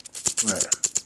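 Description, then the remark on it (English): A voice imitates the hit sounds of rapid submachine gun fire in a video game, spitting out about eight quick, sharp bursts in a fast steady rhythm, moderately loud. “It sounds like a bullet going into someone.”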